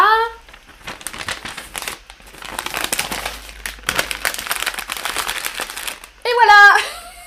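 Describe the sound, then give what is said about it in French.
Continuous crinkling and rustling of a newspaper sheet being folded and handled to wrap a gift for several seconds, with brief bits of voice at the start and end. “Et après, j'utilise la feuille pour faire les cadeaux.”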